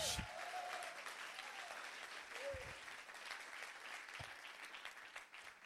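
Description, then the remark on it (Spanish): An audience at a church service claps together for Jesus in a sustained, dense wash of applause, with a few faint cheers and voices rising briefly over the steady clapping. “Si usted lo cree, den un aplauso fuerte a Jesús.”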